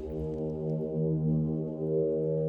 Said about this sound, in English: Oh, and the Jupiter 6, which is my favorite synth of all time, makes a feature in this as well.